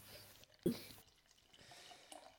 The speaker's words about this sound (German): Ja, also mir ist gerade ein Guinness im Gesicht explodiert, das hat aber nichts mit, mit Dance-Züchtigungssachen zu tun.